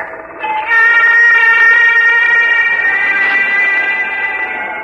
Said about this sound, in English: It was a woman's voice. Or was it the wind?